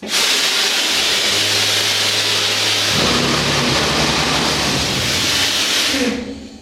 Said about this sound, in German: Noch größer als der Bohrhammer ist der Bohrwagen. Mit 135 Dezibel ist die gelbe Maschine so laut wie ein startendes Flugzeug.